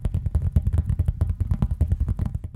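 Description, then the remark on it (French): Fingers tap rapidly and steadily on a surface, a continuous patter of soft knocks with a muffled, thudding body, alone without any voices. “Ce sont par exemple du papier froissé, les pages d'un livre que l'on tourne, le tapotement des doigts,”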